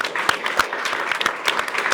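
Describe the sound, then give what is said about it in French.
An audience applauds a live caricaturist steadily, a dense wash of many hands clapping with a few sharper individual claps standing out, sustained at moderate loudness throughout without any talking. “Grâce à Ignace, qu'on peut applaudir, qui est notre”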